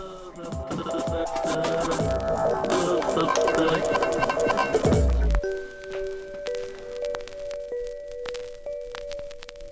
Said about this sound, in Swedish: Säg till när du vill ha bumper. Ja, kör den